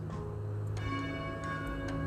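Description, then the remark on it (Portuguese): A church bell rings with a sustained, resonant hum, its overlapping strikes blending into a continuous ringing tone that fills the short stretch without any talking. “vocês estão escutando o nosso sino aqui, mas vão se colocando na graça de Deus.”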